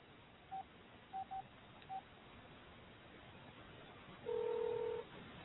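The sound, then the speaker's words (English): Four short, evenly pitched keypad beeps of a phone being dialed, then after a pause a single longer ringback tone, heard thin and narrow as if over a phone line, with no talking. “Can you hear it ringing?”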